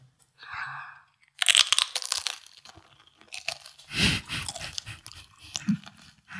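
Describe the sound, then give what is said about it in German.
A loud crunchy bite into nachos topped with Green Goddess salad, followed by several seconds of repeated crisp chewing and munching, with no one talking. “Einmal Rezept? herzhaft reinbeißen ja.”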